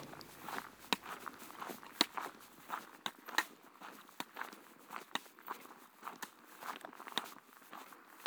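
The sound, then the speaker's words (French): Slow walking footsteps fall at an unhurried, fairly steady pace of about 60 beats per minute, each step a soft, crisp scuff that stands out clearly, with no talking. “faire des détours, me pencher sur les détails, trouver ma pulsation, régler mon pas sur le tempo d'une marche qui serait juste pour moi.”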